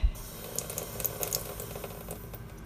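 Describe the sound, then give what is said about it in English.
A lot of water runs steadily from a kitchen sink tap, a continuous rushing hiss with a low rumble and occasional brighter splashes, with no voices. “I'm running water in my kitchen sink.”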